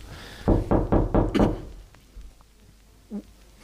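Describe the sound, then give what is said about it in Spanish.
Five quick, firm knocks on a door in an even rhythm, fairly loud, followed by near silence with a faint brief sound toward the end. “¿escuchas eso? Deben ser nuestros vecinos. Anda, ábreles.”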